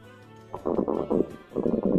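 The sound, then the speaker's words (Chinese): Two loud, rumbling snores follow a quiet start, each a gurgling, low-pitched burst lasting under a second, with a short pause between them and no talking; the snoring of a little elf asleep and dreaming. “原来是一个小精灵睡着了。他在梦中偶尔打起响亮的呼噜，这就是茱莉亚听到的“咕噜噜”的声音。”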